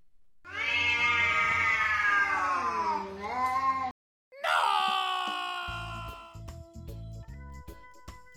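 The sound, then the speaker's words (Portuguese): Two cats caterwaul, fighting under a window at half past four in the morning, loud drawn-out yowls rising and sliding in pitch, a short break, then a second long wavering howl that fades into lower growling. “Só que dois gatos resolvem se estranhar bem debaixo da tua janela às quatro e meia da manhã.”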